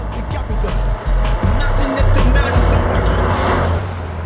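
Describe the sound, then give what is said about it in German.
A bright yellow Daihatsu rolls past with loud hip-hop music booming from inside, heavy thumping bass and a steady beat over the engine and road noise, lasting several seconds. “Auf dem Rückweg zu Bobs Käfer fuhr ein knallgelber Daihatsu an den drei Detektiven vorbei, aus dem laute Hip-Hop-Musik drang.”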